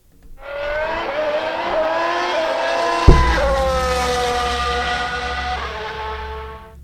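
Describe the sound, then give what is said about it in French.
Several race car engines roar loudly at the start of a race, their high-pitched whine climbing as they rev up, with a sudden deep thump midway before the engines keep howling steadily. No one speaks. “Alors, mesdames et messieurs, démarrez vos moteurs. C'est un départ.”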